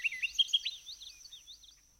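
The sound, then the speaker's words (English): A bright, rapid orchard oriole song of quick chirps and slurred whistles, clear, louder at first then trailing off softer over a couple of seconds, recorded on a morning at the Flat River waterfowl impoundment, a natural area of deciduous forest, fields and wetlands. “The orchard orioles sang sweetly at the Flat River waterfowl impoundment, where Kent Fiala recorded their voices.”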